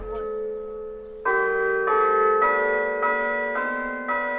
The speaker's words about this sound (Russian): Это колокольный звон костела Христова Вознесения в Ишишкис. Городок на границе с Белоруссией.